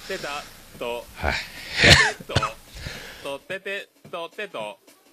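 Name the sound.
cough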